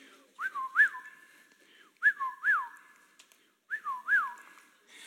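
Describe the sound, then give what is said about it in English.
A person whistles an imitation of a whippoorwill call, three clear rising-falling three-note phrases repeated at a steady pace, fairly loud with no talking. “Have you ever walked down the road in the middle of summer and you hear the unmistakable sound of a whippoorwill? Go something along the lines of, see if I can get this.”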